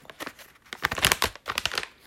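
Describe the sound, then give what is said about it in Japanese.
Crinkling of a package of hojicha (roasted green tea) with a small mandarin orange aroma being opened: a run of irregular, crackly plastic rustles in several bursts over about two seconds, moderately loud, with no talking. “これねあのこういう風にちゃんともちろん飲むのも美味しいんだけど開けた時の香りもぜひちょっと味わってほしいです開けた時のねこの香りがね落ちないかな大丈夫か”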